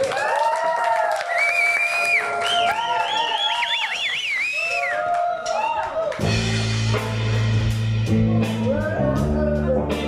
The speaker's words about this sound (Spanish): Así que un aplauso